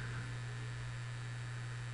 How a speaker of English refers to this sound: They got the hair dryer going, and she's using her Walkman.